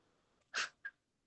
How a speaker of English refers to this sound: Sorry, my cat's having a little tantrum. um, you okay, baby? Okay.